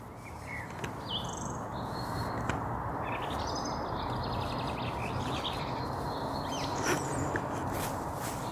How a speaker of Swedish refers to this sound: Ja, där var gräsand och bofink bland annat.